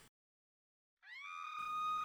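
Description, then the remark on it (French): After a moment of silence, a single piercing, heart-rending scream rises sharply and holds at a high, strained pitch, loud, with no talking. “Un hurlement déchirant.”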